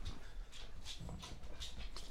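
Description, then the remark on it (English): A dog makes noise, a series of short, fairly quiet bursts repeating every half second or so over a low, steady hum. No one is talking. “All right, one more question because my dog is being an asshole.”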